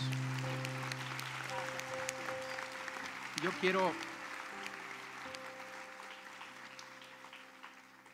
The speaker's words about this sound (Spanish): Amén. Amén. Amén. Un aplauso a Dios.